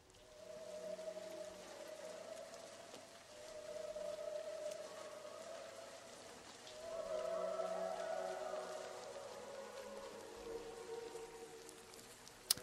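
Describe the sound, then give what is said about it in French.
Steady rain hisses throughout on a rooftop, a dense, even patter, while long wavering tonal moans rise and fall over it. No one speaks. “Il faut imaginer un homme euh, sur un toit, avec un couvercle de poubelle sur la tête, sous la pluie donc.”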